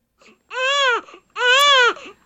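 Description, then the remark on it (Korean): A newborn baby wails in two long, strained cries separated by a brief breath, loud, with small whimpering catches between and at the end, just after being born in a hospital delivery room. “아, 아빠 없는 코 사이에 아기가 태어났는데요.”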